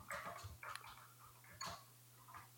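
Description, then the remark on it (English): Clacky keystrokes from a loud computer keyboard arrive in short irregular bursts of rapid clicks with brief pauses between, over a steady low electrical hum and no talking. “Sorry, my keyboard is so loud.”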